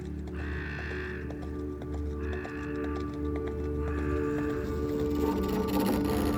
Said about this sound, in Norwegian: Mannen gjør seg ferdig med et grynt drar på seg buksa, går ut, klyver opp på hesten og fær bort, mens han plystrer samme melodien som jenta nynna på ti minutter før.